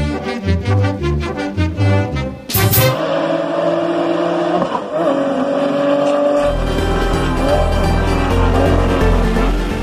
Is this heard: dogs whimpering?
no